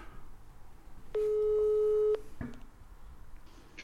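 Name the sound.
telephone ringing tone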